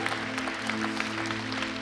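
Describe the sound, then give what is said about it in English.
A standing crowd claps for Jesus at a religious gathering, a dense, continuous patter at a moderate, even level, with a low sustained tone humming underneath throughout. “Let's give Jesus a great clap.”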